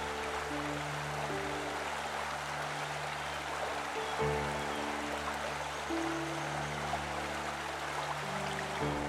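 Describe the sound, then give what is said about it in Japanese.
A nearby river in a forest flows steadily, its continuous rushing, bubbling wash filling the whole stretch at an even volume, with soft sustained low tones humming underneath and no voices. “川が近くにあるみたい水の音が聞こえるね”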